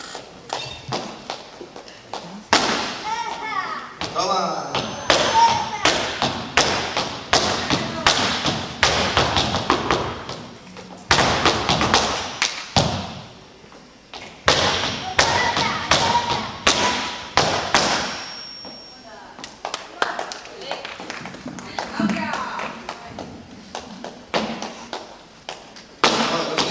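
A group of women stamp their heels and clap their hands, making a loud, dense, percussive racket of sharp thuds and claps in fast, driving rhythms, with brief pauses between bursts.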